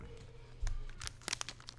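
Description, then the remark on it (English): Crinkling of a snack chip package, the inner packaging inside a Pringles-like tube: a run of sharp, irregular crackles and rustles, with a denser burst of crisp crunches toward the end, fairly quiet overall with no talking. “they come in a tube like Pringles, and then in a package inside.”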